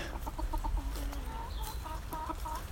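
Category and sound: bird, hens clucking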